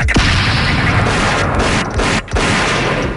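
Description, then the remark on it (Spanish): A dense, loud barrage of explosions and rapid gunfire roars without pause, heavy booms rumbling beneath sharp cracking shots, like an intense battle sound effect with no voices. “Oye, ¿tú qué harías si de repente empezaran a caer bombas y hubiera muchos balazos”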